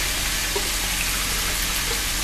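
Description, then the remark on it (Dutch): Water pours in a steady, continuous stream for a couple of seconds as some water is added and spilled, a bright splashing hiss with no pauses and no one speaking. “Maar niet Ik ga wat water toevoegen.”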